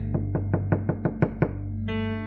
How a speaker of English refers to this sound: He said, I stand at the door and knock. He said, I'm knocking at the door of your life. I want to come in.